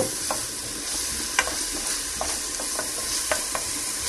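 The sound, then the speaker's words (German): A small diced onion sizzles steadily in hot olive oil in a pot as a soup is started, a dense crackling hiss with a few sharper pops and occasional stirring scrapes scattered through it. No one speaks. “Ihr hört es, wie es brötschelt.”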